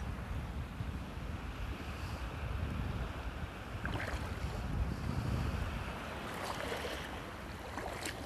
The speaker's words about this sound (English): Will you hear is the sounds of the shoreline of the Gulf in St. Pete, Florida. It's morning time. The sun is out. The water is warming.